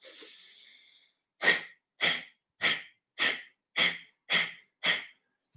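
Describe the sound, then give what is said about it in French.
A soft drawn-in breath, then seven sharp, forceful exhalations through the nose in a steady, brisk rhythm during a breathing exercise, each pulling the navel in; each a short loud puff of air, clear with silence between. “Et maintenant, quand on a un peu familier avec ce mouvement d'expiration en avalant le nombril, on va enchaîner les expirations en avalant le nombril à son propre rythme.”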